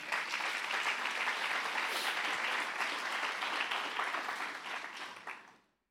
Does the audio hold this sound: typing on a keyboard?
no